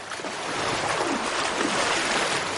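Sea waves wash steadily against the shore in a continuous, hissing surge that swells slightly after the first moment and stays fairly loud, with no voices.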